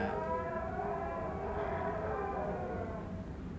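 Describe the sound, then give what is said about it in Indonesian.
A goat bleats in a long, drawn-out, wavering cry that holds steady for several seconds, loud, with no one speaking over it. “Suara anjing Kambing guys.”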